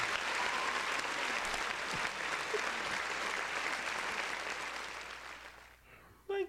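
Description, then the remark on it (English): A dense round of applause from a crowd claps steadily for several seconds, then thins and fades out, with a brief voice cutting in at the very end. “Round of applause.”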